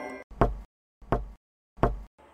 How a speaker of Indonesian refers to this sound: Setiap kemunculannya, hantu tok-tok ini hanya duduk di bali-bali bambu. Wajahnya menghadap ke arah jalanan sambil memukul-mukul bali bambu. Entah dengan apa, yang jelas bunyinya